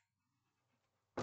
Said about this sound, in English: Uh, if you hear desperate panting and whining in the background, I assure you, I have not kidnapped anyone. It's just my dog. Say hello, Ash.